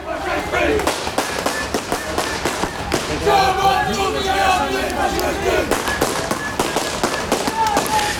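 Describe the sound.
An antifascist counter-demonstration against a Pegida demonstration in The Hague, on the move: rapid firecracker bangs crackle repeatedly over a dense crowd of voices, with shouting and steady background din throughout.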